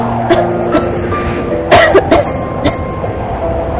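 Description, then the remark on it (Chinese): A person, amused by a joke, breaks into a series of short, harsh coughs, a few spaced out and then a quick cluster of three, over a steady low rumbling drone with a faint hum. “我被他逗乐了，咳嗽起来。”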